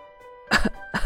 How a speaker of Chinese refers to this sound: 哎呀，烟囱生病了，是他们在咳嗽呢。烟囱三兄弟。咳嗽的好厉害，咳得摇头晃脑的，涨红了脸。他们每咳嗽一声，就有黑烟从他们的头上升起来。